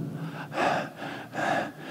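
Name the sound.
imitated panting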